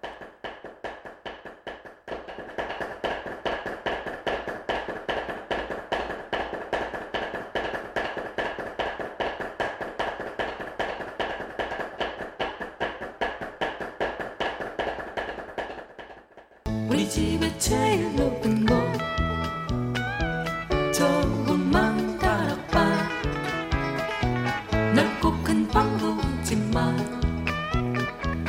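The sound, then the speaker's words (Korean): Dadeumi sticks beat laundry on stone in a fast, steady stream of sharp wooden taps for about sixteen seconds, with no voices. Then the tapping gives way to loud music. “네, 여러분께 들려드린 소리는 다듬이질 소리였죠.”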